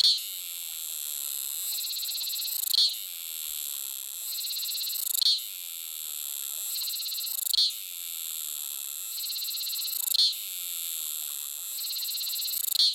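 A cicada of the species Tana roseus sings alone in a loud, continuous high-pitched buzz, its song shifting in a repeating pattern about every two and a half seconds, each cycle marked by a brief sharp accent.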